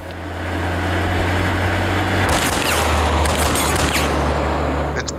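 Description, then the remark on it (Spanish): A sudden, loud burst of rapid gunfire sprayed from a car, in a film scene where Telly Savalas as Blofeld shoots a woman, over the steady rumble of the car engine, the shots rattling on for a few seconds before the engine carries on alone. “La acribilla Telly Sábalas desde un coche.”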